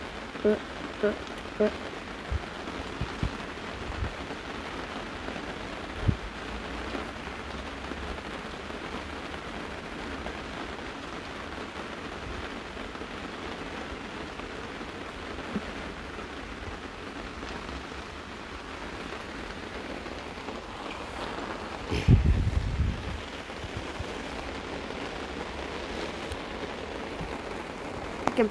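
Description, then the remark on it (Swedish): Heavy rain pours steadily throughout, a dense continuous hiss of drops drumming on a surface, with a brief louder clatter near the end. “Förlåt att det regnar så mycket.”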